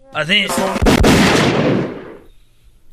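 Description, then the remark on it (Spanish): A brief voice, then a loud firing-squad volley of an execution by firing squad in the United States: two sharp gunshot cracks in quick succession, followed by a long, echoing rumble that slowly fades. “Pero bueno, la ejecución por fusilamiento, o sea, por disparo, está todavía vigente en los Estados Unidos.”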